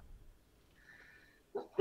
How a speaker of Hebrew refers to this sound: לבריאות.